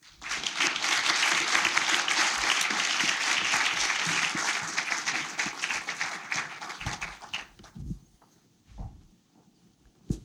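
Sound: audience applause welcoming speakers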